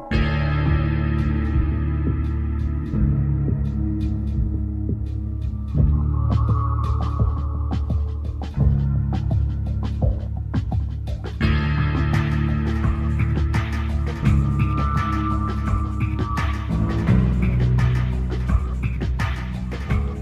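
A dark, ambient electronic music track from the Half-Life video game soundtrack plays steadily: a deep throbbing drone underpins layered synth tones and scattered clicks, shifting texture every few seconds, with no voices.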